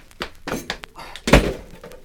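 A door slams shut with a single heavy thunk, preceded by a few softer knocks and rustling movements.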